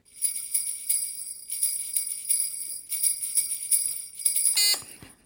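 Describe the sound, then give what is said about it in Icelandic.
Bright, high-pitched Christmas reindeer bells jingle continuously in shaken bursts, with a sharp metallic ring near the end before fading out. No voices. “Já, reyndirabbjöllur voru það.”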